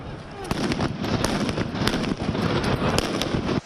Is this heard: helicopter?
no